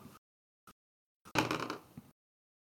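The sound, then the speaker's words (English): A few light clicks, then a busy clatter of dice tumbling and rattling across a hard tabletop for under a second before settling, with no voices. “Oh, good, I'm rolling so much now. What's what's dice is gonna fail me now?”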